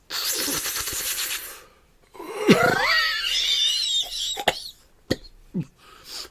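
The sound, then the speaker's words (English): A voice acts out a man coughing as he smokes a cigarette: a long breathy wheeze, then strained, hacking coughs trailing into a few short, sharp barks, fairly loud with no speech. “and sort of coughing and half, half sort of exhales this uh, cloud of smoke.”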